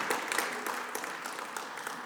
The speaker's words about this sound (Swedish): Ja, en applåd. Fantastiskt.